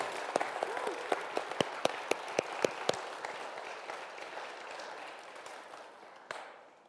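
An audience breaks into applause, a dense wash of clapping with a few sharp, louder claps standing out early on, then gradually fading and thinning toward the end.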